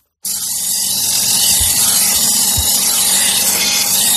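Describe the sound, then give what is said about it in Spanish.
A knife being sharpened on the motorized grinding stone of Jesús Galache, a knife sharpener from Madrid who works from a van converted into a workshop: a loud, steady metallic hiss over a low motor hum that starts abruptly and runs continuously, with no voices. “Esto que escuchas es la piedra afiladora de Jesús Galache.”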